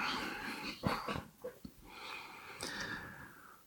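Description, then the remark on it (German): A dog breathes heavily and wheezily, with several short, sharp snorts breaking up the raspy breaths. No one speaks. “Wir wollen mal irgendwo hin, wo der Hund sich wohlfühlt.”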